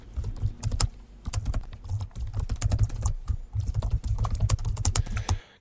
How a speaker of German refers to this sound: Und äh, ich gebe einfach mal unten in die Zeile ein.